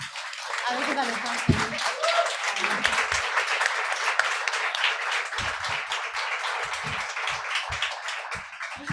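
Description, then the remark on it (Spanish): Sustained loud applause from a crowd, dense rapid clapping filling the whole stretch at a steady level, with a few faint voices and cheers mixed in underneath. “Así que o, sí que o que sí que che vou agasallar é eh, un aplauso muy fuerte, me quedo falando con túas actrices.”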